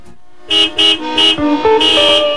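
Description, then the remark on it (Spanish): Several car horns honk in quick succession, short blasts overlapping at different pitches and then merging into a longer sustained honking, loud, like impatient drivers stuck in dense traffic. “Deja el estrés del tránsito por un lado, porque ahora transitaremos por una ruta alterna.”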